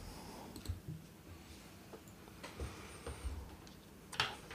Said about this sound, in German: Dann würfel doch mal bitte auf deinen Dolchangriff.